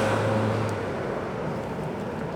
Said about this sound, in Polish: Słuchaj, ciszy nie ma. Na razie spotkałam tak, y, takie dziecko, które przepędzało ptaki tam i krzyczało strasznie, hałas miasta jest. Aha, no i hałas pewnie dworcowy też trochę.